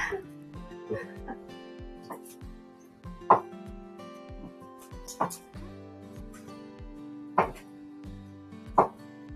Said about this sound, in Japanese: 今ね、あのー、今何切ってるのサラダのキュウリを切ってました。何まな板トントンして切ってる音だけ出してんだよ。